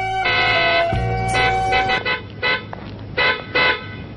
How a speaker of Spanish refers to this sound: He oído el claxon. ¿Has tocado el claxon? Oh, yo no. Ah, sí, apenas he apoyado el codo. Es un claxon muy sensible. En cuanto se le roza, ¿ves? solo con el codo.